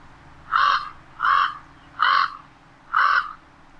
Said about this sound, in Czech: Co si pustíme? Ano, pustíme si hlas krkavcovitého ptáka, tady se jmenuje přímo krkavec velký.